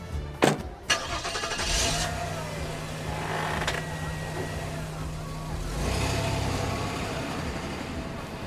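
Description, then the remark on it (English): A couple of sharp thuds, then a car engine idles steadily before revving up and pulling away, its rumble swelling briefly and then fading as it drives off. “Oh, they've gone. Well, Eddie'll realise in a minute. No, no, no, he's turned off.”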